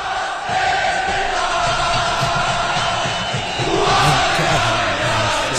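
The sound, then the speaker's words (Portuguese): A huge stadium crowd chants the football slogan "o bacalhau chegou" (the cod has arrived) in unison, a loud, steady roar of many voices with a rhythmic pulse that swells briefly toward the end. “o estádio uh, o ambiente e eles cantam, e eles têm uma frase genial que é o bacalhau chegou.”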